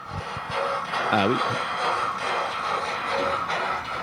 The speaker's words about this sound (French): Simon, vous entendez notre petit train